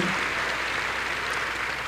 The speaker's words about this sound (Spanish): Para el cual pido un fuerte aplauso.